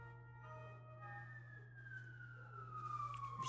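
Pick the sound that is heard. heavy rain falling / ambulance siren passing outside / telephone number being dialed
ambulance siren passing outside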